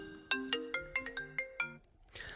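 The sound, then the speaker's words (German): A telephone ringback tone plays as a quick, bright melody of about seven evenly spaced xylophone-like notes, clear, then cuts off into a short burst of noise. “Freizeichen?”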